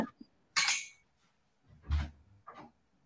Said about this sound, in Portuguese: A minha gatinha está gritando ali na porta, que a porta está fechada. Aguenta, deixa eu só abrir a porta para ela, já volto.